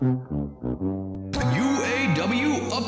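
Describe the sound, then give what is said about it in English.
The Price Is Right game show theme riff, played as a morning update soundtrack: a few low, blaring brassy stabs, then a burst into a full, bright band with a swooping melody, loud with no talking. “But we have a little soundtrack that we play every morning when we update it, and it sounds like this.”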